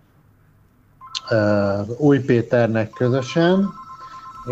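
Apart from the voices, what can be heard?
telephone ringing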